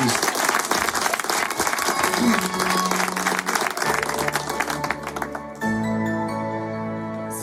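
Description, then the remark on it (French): An audience applauds a first live performance on a radio station in a dense, steady roar of clapping for about five seconds, then the clapping cuts off as sustained, tonal music begins. “Applaudissements pour le premier live”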